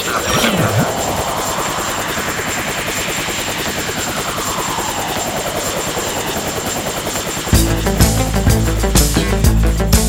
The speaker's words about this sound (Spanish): Estamos arribando, arribando en este fantástico helicóptero